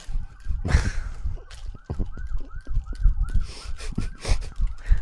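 An ambulance siren wails in quick repeated rising-and-falling cycles over steady street noise and rumble as it goes by.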